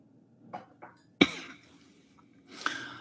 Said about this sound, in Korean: 제가 기침이 지금 3주째 나가지고요. 지금 기침 멈추는 어, 차를 마시고 있는데 중간중간 마시도록 하겠습니다. 죄송합니다.